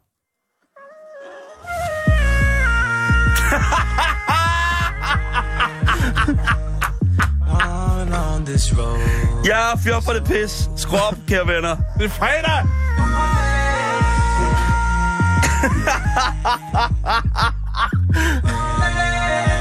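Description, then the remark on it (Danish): The howls and yips of a dog named Maggie, pitch-corrected with autotune into stepped, robotic melody notes over a loud, steady backing track, with a voice briefly speaking. “Maggie synger bedre igennem auto.”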